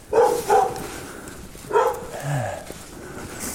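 A dog barks in Duderstadt, near an art hall and a tattoo studio in a half-timbered house: two quick barks, a short pause, then a third bark trailing into a lower grumbling sound, with faint background noise throughout.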